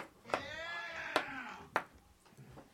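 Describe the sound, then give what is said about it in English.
An old dog with arthritis acting up whines in a wavering, high-pitched cry. A few sharp clicks or taps break in at intervals, and no one speaks. “Dude, that dog sounds so bad.”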